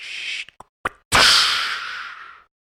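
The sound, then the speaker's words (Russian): A voice imitates a large mirrored wardrobe door toppling onto a sofa: a few quick clicks and pops, then a soft thump followed by a long breathy whoosh that fades out over about a second. “Поворачиваю голову и вижу, что это упало на диван дверь шкафа.”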